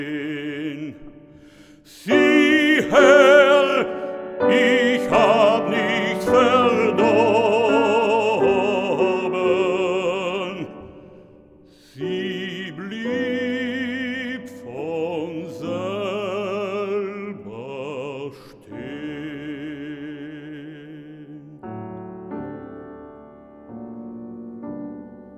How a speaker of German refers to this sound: sang soeben mit meiner Begleitung Die Uhr von Karl Löwe.